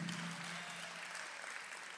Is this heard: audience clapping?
yes